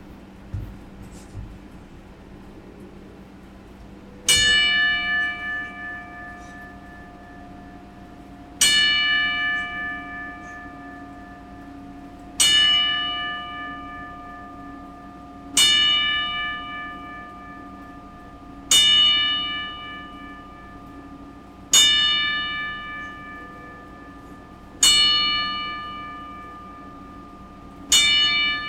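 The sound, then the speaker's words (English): A single bell tolls slowly and steadily, struck about every three seconds, each clear ringing stroke fading before the next, as a ten-bell salute paying respects to Windham Rotunda. No voices, only a faint background hum between strikes. “And for him, I decided to just release an episode with a 10 bell salute and paying my respects to him.”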